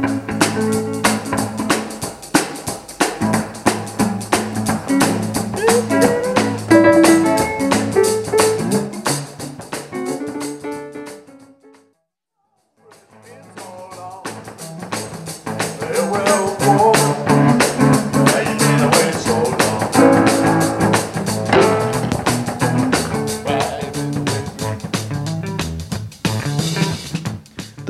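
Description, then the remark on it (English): A full band plays a loose, rambling jam led by a musician, with a musician on piano and a musician on electric guitar over drums, loud and dense, breaking off into silence for about a second midway before picking back up. “… leads the band into a loose jam, … on piano and … on guitar.”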